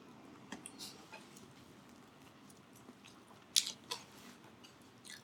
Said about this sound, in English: Like look at this, I only eat I only chewed it for like five times and swallowed the whole damn thing. Once again he has taken a bigger bite.